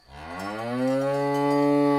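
A single long, deep, loud cow moo, rising slightly in pitch and holding steady to the end, with no other sounds or voices around it.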